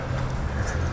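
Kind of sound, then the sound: household object, keys jangling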